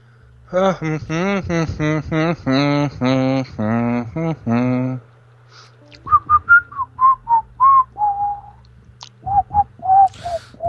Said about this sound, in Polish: Gwizdanie w radio to nie jest dobry pomysł, to słabo brzmi, ci powiem.